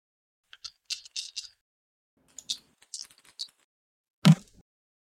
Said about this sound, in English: Just want to make sure I get a good like dice shaking for the for my mic.